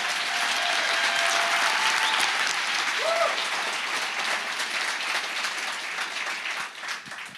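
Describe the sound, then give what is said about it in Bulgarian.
An audience applauds steadily, a dense wash of many hands clapping at once, fairly loud and sustained for the whole stretch before easing slightly near the end. “О, аз бих ръкопляскал, ако бях от другата страна.”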